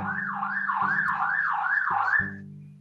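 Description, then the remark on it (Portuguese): A police siren wails outside, its pitch sweeping up and down in quick repeated cycles over a low rumbling hum, fairly loud and steady before cutting off near the end. “A polícia Porque até bateu na sua porta aí.”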